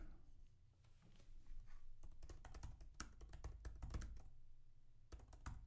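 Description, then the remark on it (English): Rapid clicking of keys on a computer keyboard, fairly loud, in irregular bursts with a short pause near the end, over a low steady hum and no talking. “I'm just typing”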